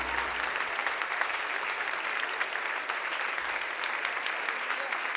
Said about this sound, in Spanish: aplauso a nuestro Señor. Aleluya.